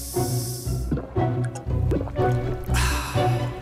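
Cristalina returnable sparkling water pours with a bright fizzing hiss, bubbles crackling loud in short bursts, over a low steady tonal background.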